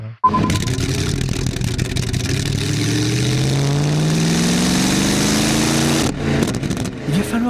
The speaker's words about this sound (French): pour entendre le ronronnement de son moteur. Pour patienter, bah ça c'était celui de la de 1927